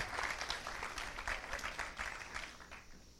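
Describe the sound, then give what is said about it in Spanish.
Loud, sustained applause from an audience clapping for Jesus, a dense wash of many hands clapping steadily throughout before tapering slightly at the end. “Vamos a darle un aplauso fuerte a Jesús si usted lo cree.”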